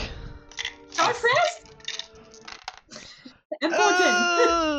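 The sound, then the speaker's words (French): Dice rattle and clatter in a few quick bursts during a tabletop role-playing game, mixed with excited voices and a drawn-out vocal exclamation toward the end. “Il y a des dés, il y a des dés.”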